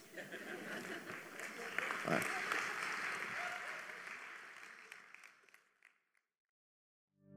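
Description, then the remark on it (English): A crowd applauds steadily at a church service, a dense wash of many hands clapping that holds strong for several seconds, then thins and fades out, followed by brief silence. “Put your hands together.”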